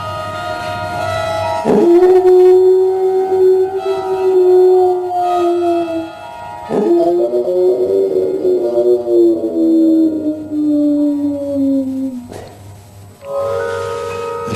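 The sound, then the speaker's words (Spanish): A huge hound howls at night in a Dutch cemetery, very distant at first, in long, sustained, wavering notes: three drawn-out howls separated by brief breaks, loud and resonant with a steady low hum underneath and no talking. “Ahí fue donde San John y yo por primera vez escuchamos, muy lejano al principio, el aullido de ese enorme sabueso.”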